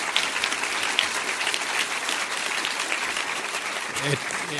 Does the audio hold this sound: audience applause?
yes